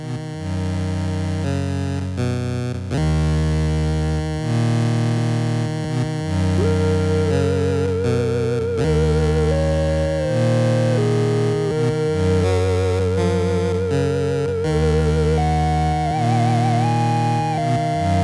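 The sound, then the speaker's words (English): An 8-bit video game chiptune plays continuously, with a buzzy lead melody wavering in vibrato over a pulsing bass line and crisp noise-drum hits, loud, with no voices. “But it can be used for melodies, and because it has such a distinct sound from the other pulse waves, it's not the same as them, obviously.”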